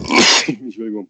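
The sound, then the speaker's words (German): A single loud sneeze: a sharp, breathy burst of noise that trails off into a brief voiced sound, lasting about a second. “Gesundheit.”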